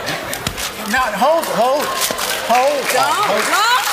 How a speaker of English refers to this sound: That is the sound of Grace Jones hitting the guy who is interviewing her on BBC television.